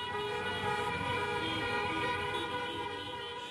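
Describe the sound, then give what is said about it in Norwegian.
A dense wall of sustained car horns blares continuously, layered with droning tones and traffic noise, loud and steady throughout, as angry taxi drivers protesting Uber block traffic in Buenos Aires, Argentina. “Denne uka har drosjesjåførene gjennomført flere høylytte demonstrasjoner.”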